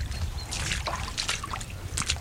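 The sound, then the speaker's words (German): Water trickles and splashes steadily, with bright gurgling bursts over a low rumbling background: a real brook, fed by rivulets in a shady hollow, runs through a dark, low tunnel culvert along a slate hiking path. “Es läuft quasi ein richtiger Bach durch diesen Durchlass.”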